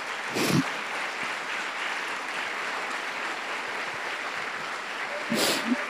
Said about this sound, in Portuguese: Tu quer dar uma salva de palmas para esse amado Jesus?